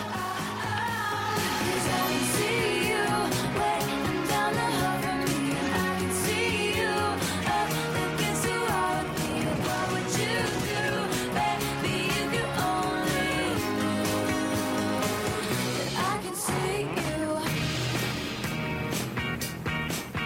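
A full-band pop song plays loudly and continuously, with a steady driving beat, layered instruments and sustained melodic lines running throughout, no talking over it.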